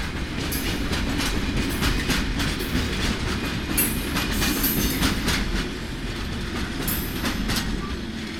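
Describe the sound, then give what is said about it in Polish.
A train rolls steadily along with a continuous rumbling clatter of wheels on rails, dense low-end noise and irregular metallic clicks, loud throughout with no talking. “tak nas wieźli nie wiadomo gdzie. I w pewnym momencie pociąg się zatrzymał w polach, bo był straszny śnieg.”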